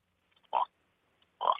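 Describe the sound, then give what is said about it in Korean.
Two short, throaty croaks from a contestant imitating a toad for judges' scoring, spaced about a second apart with silence between them, fairly loud. “예, 두꺼비 소리요.”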